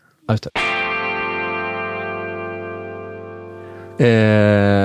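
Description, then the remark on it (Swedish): An electric guitar, with effects, strums an F11 chord with G in the bass after a couple of short muted scratches. The chord rings out for several seconds, fading slowly, then a louder second strum cuts in. “Jag tror att det blev ett F11 med eh, G i basen och,”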